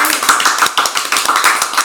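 A burst of applause from a small group, dense overlapping claps in a steady patter lasting about two seconds, fairly loud, with no talking over it.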